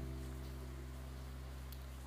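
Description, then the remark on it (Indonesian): Steady, soft rainfall at night, the first rain of September, hisses evenly throughout, fairly quiet, with a constant low electrical hum underneath and no voices. “Malam ini hujan kembali turun.”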